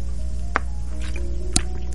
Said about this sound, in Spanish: Disculpe, me estoy tomando agua.